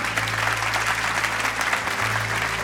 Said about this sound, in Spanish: Bendiciones. Un aplauso nuevamente.